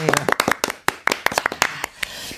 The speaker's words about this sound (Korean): 용광로에서 근무하시는 모든 분들을 위해서 우리가 지금 박수 한번. 네, 파이팅! 파이팅!